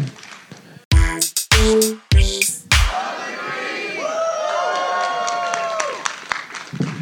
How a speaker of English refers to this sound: Let's do the one more time on the Love in Brief theme. You guys ready to yell Love in Brief real quick?